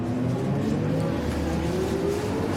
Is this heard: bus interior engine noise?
yes